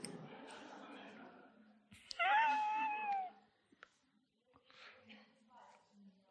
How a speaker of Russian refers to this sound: Зеваешь, значит, плохо слушаете.